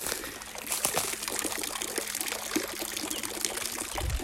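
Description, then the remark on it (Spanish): A small stream of water trickles and splashes steadily, a continuous bright burbling with fine droplet patter, moderately loud, with no voices. “¿Escucháis el chorrillo de agua?”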